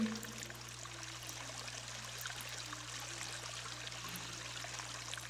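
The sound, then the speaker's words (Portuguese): Water pours into a cup in a steady, continuous trickle for several seconds during a guided meditation, fairly quiet, with a faint low hum underneath and no voices. “E quando for colocar água nesse recipiente, esteja presente, percebendo a água preenchendo um espaço vazio, ouvindo o barulho que a água faz.”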